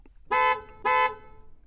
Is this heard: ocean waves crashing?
no